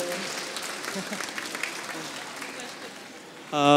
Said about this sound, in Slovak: V kľude môžete tleskať ľudia, nemusíme sa báť. Nestane sa nič zlé.